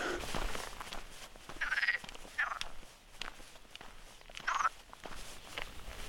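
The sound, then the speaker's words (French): A chorus of frogs croaks in repeated bursts, loud, with rustling footsteps and outdoor background noise running underneath, heard but unseen by a walker on the Camino past Boadilla del Camino toward Carrión de los Condes, under a slightly threatening sky. “J'entends des grenouilles.”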